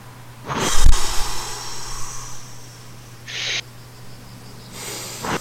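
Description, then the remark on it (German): Three deep, airy breaths taken during a guided meditation, the first strongest with a slight snort, then two softer, steady inhales or exhales spaced a couple of seconds apart, no talking. “Und konzentriere dich auf Stimme, nimm drei tiefe Atemzüge.”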